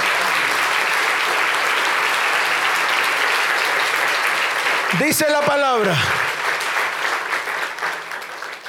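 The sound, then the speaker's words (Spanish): A church audience claps loudly and steadily for the Lord in a dense, sustained burst of applause, with a voice cutting through briefly partway and the clapping easing slightly toward the end. “Dele fuerte ese aplauso al Señor.”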